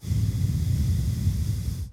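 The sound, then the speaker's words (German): One long, exaggerated heavy breath, rasping, held steady for about two seconds with no talking. “Wayden ist folgendes Geräusch. Also einfach das, was ich immer mache, atmen.”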